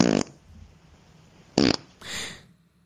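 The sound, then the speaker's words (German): Two short, loud, fairly dry farts about a second and a half apart, each a quick buzzy burst, followed by a brief airy hiss; no one speaks. “Das ist, das ist eigentlich Furz Nummer 6, aber äh, nicht so feucht. Mhm. Aber dafür doppelt.”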